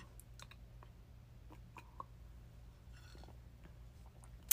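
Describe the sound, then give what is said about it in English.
Someone quietly sips tea: soft mouth clicks and a brief, airy slurp, faint over a low steady hum, with no talking. “I'm gonna take a sip of my tea, y'all.”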